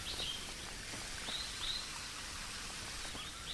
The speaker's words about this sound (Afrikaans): Maar dis 'n klein watervalletjie. Nee nee nee, dis die water wat van die waterval af kom wat nou so loop. Jy kan hom hoor hoe hardloop hy hier af.